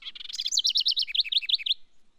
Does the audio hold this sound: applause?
no